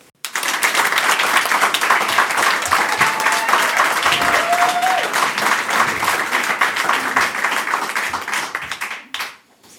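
A crowd breaks into loud, sustained applause for a comedian, lasting several seconds, dense and steady, with a brief whistle or cheer rising above the clapping before it quickly dies away.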